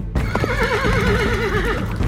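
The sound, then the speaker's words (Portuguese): A horse whinnies loudly as it approaches, one long shaky neigh with a trembling, wavering pitch that holds for about two seconds over a low, steady rumble. “Quando o cavalo começou a se aproximar ameaçadoramente”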